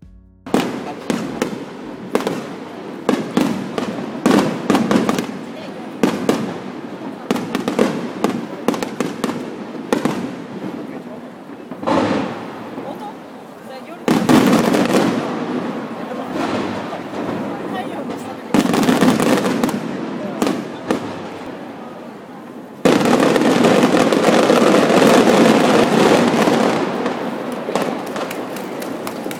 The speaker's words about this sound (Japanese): サウンドクラウドというウェブサービスで、まあ、ユーザー投稿型のウェブサービスで、えー、花火の音を見つけたので、えー、少し聞いてみてください。